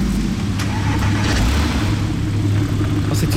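A sports car engine rumbles loudly, a deep, throaty drone holding steady throughout with no one talking.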